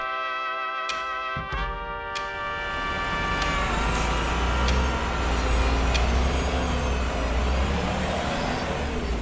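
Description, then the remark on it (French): Street traffic at a bus stop: a large vehicle's engine whines and rumbles while brief hissing bursts and clicks cut through a steady roar of passing road noise, with no voices. “rendez-vous en arrêt de bus, donc en, mode canette. En mode street.”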